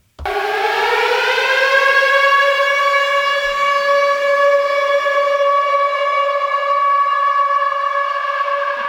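A loud civil defense lockdown siren rises quickly and then holds a steady, sustained wail with rich harmonics for about nine seconds, heard alone with no voices.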